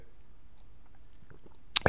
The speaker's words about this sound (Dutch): een slokje water.